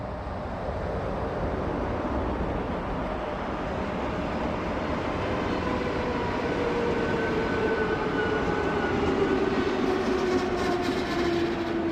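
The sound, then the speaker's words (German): A train rolls steadily along the rails on a morning journey from Berlin via Hamm to Münster, Germany, a loud continuous rumble with a faint high whine gliding slightly downward, no voices, heard as if riding aboard. “Mark fährt morgens mit dem ICE von Berlin nach Hamm und dann weiter mit dem Zug nach Münster.”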